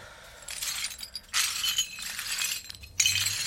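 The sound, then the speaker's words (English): Broken glass being picked up to clean up: shards clink and scrape together in a few uneven bursts, with a sharper chink near the end and no voices. “I just want to get the glass.”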